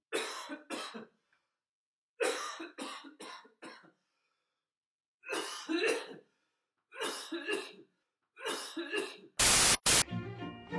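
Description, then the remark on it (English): A next-door neighbour coughs loudly, heard through the wall: loud, hacking coughing comes in about five separate fits, each a cluster of harsh coughs with short pauses between. A sharp burst of static and a brief buzzy tone follow at the end. “And here is your host, your next door neighbour coughing really loudly through the wall.”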